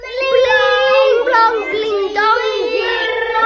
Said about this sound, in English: You can read along with me in your book. You will know it is time to turn the page when you hear the chimes sound like this.